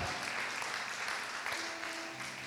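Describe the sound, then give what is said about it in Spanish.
A church audience applauds at its first in-person service, on January 8, 2023, a dense, steady wash of many hands clapping that holds at a fairly even loudness throughout, with a faint sustained tone running underneath. “Date un aplauso, iglesia, a ti.”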